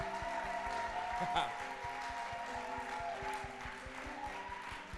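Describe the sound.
An audience applauds steadily for the whole stretch, a dense wash of clapping over a rhythmic low beat and sustained musical tones, with scattered cheering voices mixed in.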